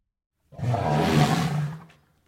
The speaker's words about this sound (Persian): اوه بچه ها این صدای چی بود؟ روتون رو بکنین اون بر آها روتون رو بکنین اون بر جنگل رو ببینین از لای شاخه ها و تنه های درخت ها اون بر جنگل رو نگاه کنین صدای فیله یه فیل